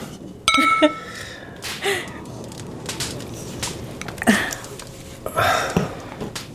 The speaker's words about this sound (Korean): 자, 와인이나 마시죠. 짠!